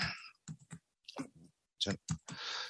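Keystrokes on a braille keyboard as someone types a demonstration sentence in UEB Braille: a handful of sharp clicking presses in uneven clusters with short pauses, ending in a longer rustling burst of key noise.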